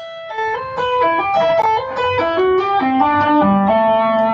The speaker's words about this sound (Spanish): Yo lo que hago siempre es mutear, estoy tocando con distorsión, siempre muteo, como cuando hacemos sweep o legato, siempre muteo con mi palma, las, cuerdas que no, no suenan no tienen que sonar jamás.